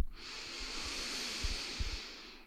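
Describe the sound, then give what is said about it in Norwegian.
A long, steady inhaled breath taken with eyes closed during a breathing exercise, airy with a soft hiss, sustained for a couple of seconds with a few faint low bumps underneath. No one speaks. “Lukker øynene, setter på magneten, trekker pusten inn, trekker energiene inn.”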